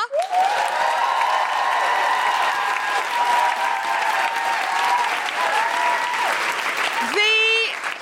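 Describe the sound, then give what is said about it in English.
A large audience applauds loudly and steadily for about eight seconds, with whoops and cheers rising above the dense clapping and one sharp rising whoop near the end; the applause is for Dr. Farah Karim-Cooper. “can I have an absolutely huge round of applause for the wonderful Dr. Farah Karim-Cooper?”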